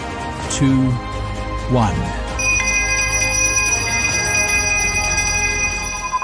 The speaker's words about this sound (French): Le 18 janvier, la société Euronext et son président… ont accueilli les dirigeants de Stellantis pour ouvrir la séance à la Bourse de Paris, au son de la cloche et en anglais.